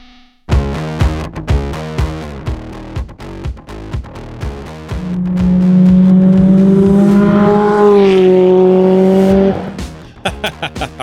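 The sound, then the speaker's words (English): A Honda S2000 race car racing the Pikes Peak hill climb blasts through rapid gear changes with sharp revs, then holds a loud, rising high-rpm wail before backing off with crackling pops, without talk. “that is Brett Dickey's S2000 uh, racing the Pikes Peak hill climb”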